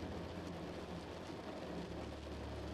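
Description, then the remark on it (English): Steady rain patters against a window in a dense, unbroken hiss, with a soft low rumble underneath and no voices. “More loose, more free in mind and body, going deeper with each and every raindrop you hear fade off into the distance as you begin to sleep.”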